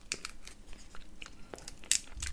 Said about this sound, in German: Trotzdem, ich mag das, dieses Knusper hier vom, von der Erdnuss.